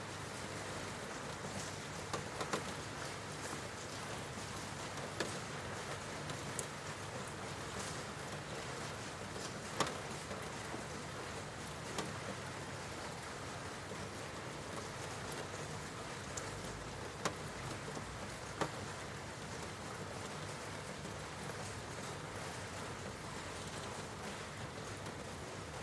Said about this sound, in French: vous entendez la pluie. Vous pouvez différencier les gouttes qui tombent, celles qui sont plus lointaines, celles qui sont plus proches. Les plus grosses et les plus fines.